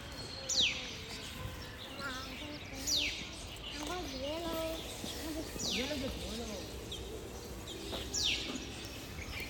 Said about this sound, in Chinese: 我就是想让你们听一下我们小区里边各种鸟叫，哇，这声音真的，我不知道有人喜不喜欢听这样的比较大自然的声音。反正我坐着听着，我是觉得也太棒了。